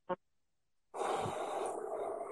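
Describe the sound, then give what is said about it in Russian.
A short puff of breath, a pause, then one long, heavy, airy exhale lasting well over a second, with no talking. “Дыши.”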